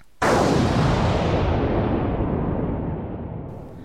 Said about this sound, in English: Or a man's weapon, the kind that causes hearing loss and nearly knocks you off your feet when you pull the trigger?